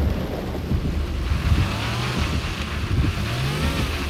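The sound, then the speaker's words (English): A car skids sideways off a lonely road in Maine in the middle of a blizzard: a loud, steady engine rumble with wind-like hiss throughout, and a couple of brief rising whines as the vehicle slides. No one speaks. “his car goes sideways on a lonely road in Maine in the middle of a blizzard”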